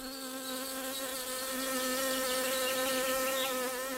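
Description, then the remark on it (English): Bees of a beekeeper in Botswana buzzing in a steady, continuous drone with a slightly wavering pitch, fairly loud, filling the whole moment with no voices, under the scorching noonday sun. “climate change challenges include bees living in search of cooler areas with better forage and water, the slowed building of bee populations because of delayed rains, and low honey production due to extreme heat.”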